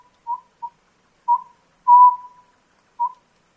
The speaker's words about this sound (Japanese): 日が沈むと同時に栃木県日光北部にあるダム湖のほとりの森の中からこの葉ずくの鳴き声が聞こえてきました